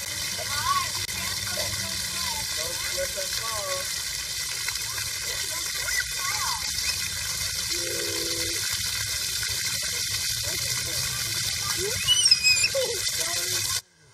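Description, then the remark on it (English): A steady stream of running water pours continuously from a tap for about fourteen seconds while a baby girl tries to grab at it, with faint voices in the background, then cuts off abruptly at the end. “She was trying to grab in, in onto some water and hold on to it, but man, she just couldn't grasp it.”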